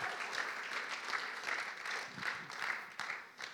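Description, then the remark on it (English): An audience breaks into sustained applause in praise of Jesus, a dense crackle of many hands clapping steadily at an even, moderate loudness with no voices standing out. “Can we give Jesus a clap in the house?”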